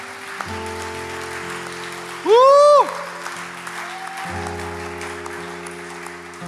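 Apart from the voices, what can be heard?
audience applause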